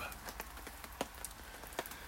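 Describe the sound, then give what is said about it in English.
Raindrops patter irregularly on a small canopy above a portable disposable hot tub, a steady scatter of soft taps with a few sharper, louder drops standing out against a faint background hiss. No voices. “listen to those raindrops on my little canopy here above the portable disposable hot tub.”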